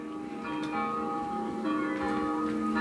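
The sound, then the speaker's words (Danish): Church bells ring steadily at a funeral at a church in Vesterbro, in raw footage filmed for the Danish TV news TV-avisen; their overlapping tones sustain and blend into a continuous resonant peal with no voices present. “Her, der er, det er lidt sort, og man kan høre nogle kirkeklokker mm-hmm.”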